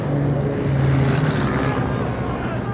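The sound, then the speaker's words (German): A steady, low drone of an enemy aircraft in the morning sky over a trench hums continuously, a dense rumble with a faint tonal whine layered on top, holding an even loudness throughout with no breaks. “Sie wurden von einem Flugzeug der anderen entdeckt.”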